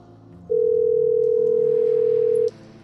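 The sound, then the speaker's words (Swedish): A single telephone ringback tone, heard while calling from a motel room, sounds as a steady, fairly loud pure beep lasting about two seconds, with faint low background hum before and after and no one talking. “Det går fram två signaler.”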